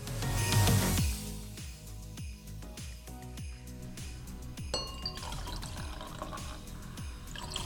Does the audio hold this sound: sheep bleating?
no